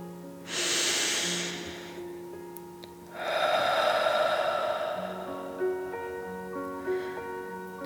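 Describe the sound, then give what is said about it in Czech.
A deep, airy inhale through the nose, a brief pause, then a longer, slower breathy exhale through the mouth, heard over soft sustained background music. “Zhluboka se nadechneme nosem, na chvíli dech zadržíme a potom pomalu vydechneme ústy, jako když drak chrlí oheň.”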